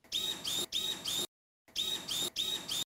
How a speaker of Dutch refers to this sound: Het was een robotlichaam voor een slang.